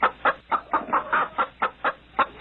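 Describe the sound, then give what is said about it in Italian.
A chicken clucks in a quick, steady series of short, sharp bursts, fairly loud, with no other sounds around it. “Insomma, l'insalata e le zucchine hanno preso il posto di rose e margherite e alcuni, più temerari, sul balcone accanto ai vasi hanno scoperto il piacere di allevare una o due galline.”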